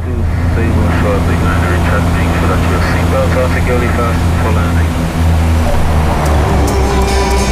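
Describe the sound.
A loud, steady drone of an airplane engine on a flight to Saba fills the whole recording, a constant low hum with a rushing, cabin-like quality, while muffled voices murmur faintly beneath it.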